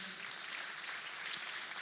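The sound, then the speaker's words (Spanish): An audience applauds steadily in an afternoon church service, giving applause to Christ for the life of the preacher's mother-in-law, who is present: a dense wash of many hands clapping at an even level with no voices standing out, one slightly sharper clap near the end. “Denle un aplauso a Cristo por la vida de mi suegra.”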